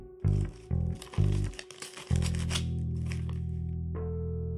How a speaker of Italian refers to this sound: Le mani della donna che aprono il biglietto.